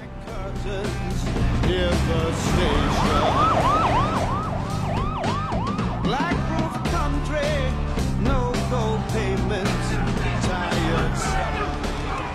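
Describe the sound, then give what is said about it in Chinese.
A police car siren wails in quick, repeating rising-and-falling sweeps as the car takes an arrested man back to the police station, loud over a dense, busy background that stays steady throughout, with the siren strongest in the first half. “亚瑟被捕，由警车押送回警局。”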